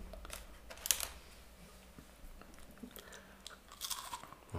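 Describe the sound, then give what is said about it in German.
Crunching on a cookie roll, a series of crisp, crackly bites and chews, with sharper bursts near the start and end and quieter munching between, no talking. “so ein sanftes Knuspern im Hintergrund. Es war ein Keks. Ja, eine Keksrolle, aber die ist nicht mehr.”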